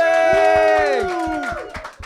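A live audience greets a guest coming onto the stage, bursting into loud cheering and whooping, with long voiced shouts sliding downward in pitch over steady, rhythmic clapping that continues throughout.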